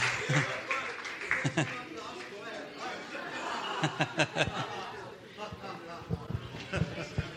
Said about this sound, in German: danke, danke, danke. So, danke für den Applaus.